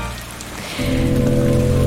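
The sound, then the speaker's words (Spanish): A rain sound effect: steady rain patters down as a broad hiss that swells noticeably louder partway through, then holds at a dense wash of falling drops with no voices. “Llueve en el estudio de Futurock.”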